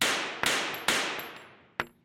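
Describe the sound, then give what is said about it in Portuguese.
Pistol shots fired into the air at a bedroom door crack out sharply, three in quick succession, each ringing off with a long echoing tail, followed by another shot and the start of one more. No voices. “você acorda desesperado que alguém na porta do seu quarto deu três disparos pro céu.”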